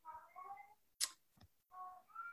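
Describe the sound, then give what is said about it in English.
A female cat with her little cloth mouse meows twice in the background, two drawn-out, wavering cries separated by a sharp click and a soft thud. Quiet, with no talking. “You may be able to see hear my cat in the background. She has her little cloth mouse, so she's wanting us to hear her.”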